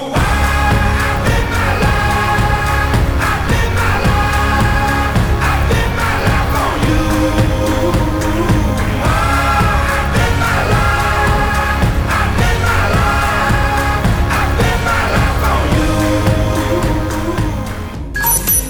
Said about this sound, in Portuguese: É isso aí, galera. Produção, sobe a música.